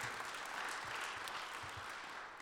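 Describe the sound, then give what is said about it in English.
A church audience applauds steadily for the kids' Blitz event, a dense wash of many hands clapping together with no single claps standing out. It stays fairly even for the whole stretch. “And so, yeah, okay, clap for that one.”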